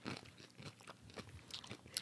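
A crisp crunch of someone biting into a chamoy pickle, followed by a run of wet chewing and crackling bites, with no talking.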